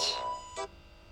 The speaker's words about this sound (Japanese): えー、っとお休み LINE の後、えー、急に彼から着信。